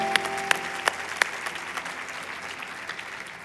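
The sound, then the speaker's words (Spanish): A church audience applauding in worship of the Lord, a steady wash of many hands clapping with a few sharper, louder claps standing out in the first second or so, then settling into even, sustained applause. “Aplaude más fuerte, yo aplaudo contigo y adoro al Señor.”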